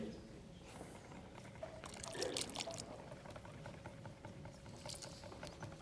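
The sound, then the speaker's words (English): Water is poured onto melted chocolate at 41 degrees to make an emulsion, a steady liquid trickle with a brief louder splash midway, over a constant low background hum. “okay, wait, we add the, the, the, some water in the top of our chocolate.”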